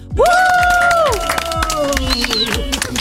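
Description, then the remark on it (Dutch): Studio audience applause greeting a guest singer on a Dutch studio show, a dense, steady wash of clapping with some cheering, running for about three seconds while a bright, sustained musical jingle plays over it. “Geef haar een hartelijk applaus,”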